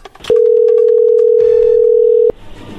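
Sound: telephone call connecting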